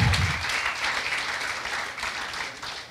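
A crowd applauds steadily for a few seconds as a woman is called up, a dense, continuous patter of many hands clapping at an even loudness, with a brief low rumble at the very start.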